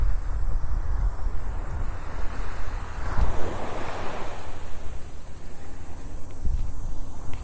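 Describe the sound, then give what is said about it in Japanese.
Ocean waves wash onto a beach on a fresh 28-degree day, in a continuous roar, with one broader surge swelling midway and then receding, all under steady low wind rumble and no voices. “波音をお届けします今日は28度、えー、最高に爽やかですね”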